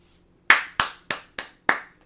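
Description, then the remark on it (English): Five sharp hand claps in a steady, slightly uneven rhythm, each a crisp bright smack that quickly fades, with no voices alongside. “I applaud that.”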